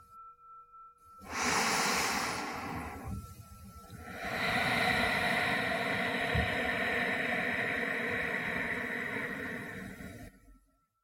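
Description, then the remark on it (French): A deep breath drawn in through the nose for about two seconds, a brief pause, then a long, steady, airy exhale lasting around six seconds, fairly soft, with no talking, as part of a guided relaxation breathing exercise. “Inspirez profondément par le nez et expirez longuement.”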